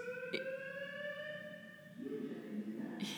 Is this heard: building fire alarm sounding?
yes